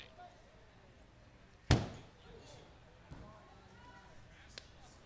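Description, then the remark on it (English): A single sharp, loud thump of a high foul pop-up baseball coming down on the canopy that stretches in front of the press box at GCS Credit Union Ballpark, ringing briefly before fading, with faint crowd murmur and a couple of softer knocks afterward. “That sound you heard was the uh, rather high Tanner Murphy pop up coming down to the canopy that stretches in front of the press box”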